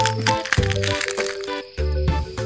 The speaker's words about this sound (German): griff nach oben und brach ein Stück vom Dach ab, um es zu kosten,